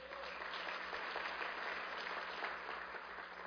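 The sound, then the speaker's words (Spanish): An audience applauds God steadily, a dense, sustained wash of many hands clapping at once, fairly loud and even throughout with no talking over it. “Démosle un fuerte aplauso a él.”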